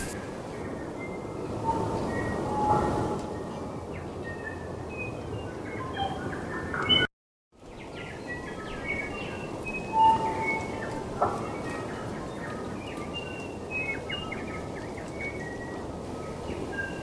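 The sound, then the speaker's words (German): Faint call of the South Island kokako, a New Zealand bird that may or may not be extinct: a few clear, mellow whistled notes rising out of a heavy, steady rushing noise, which briefly cuts out midway. “der Vogel der Woche, der ausgestorbene oder auch nicht ausgestorbene Southernalen Kükekö.”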